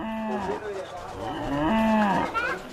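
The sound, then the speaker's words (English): Cows on a small piece of land behind a house in a suburb of Nairobi moo in a couple of long, drawn-out calls, fairly loud, with the lowing rising and falling in pitch across the short stretch. No one is speaking. “The cows live on a small piece of land behind the house”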